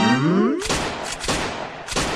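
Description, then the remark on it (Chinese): In Jordan, a relative fires a handgun into the air to celebrate a man's release from prison after fifteen years: a brief rising tonal sound gives way to a burst of three or four sharp, loud gunshots at an uneven pace, each a harsh crack with a short rumbling tail. “就是朝天鸣枪庆祝，你知道吧？”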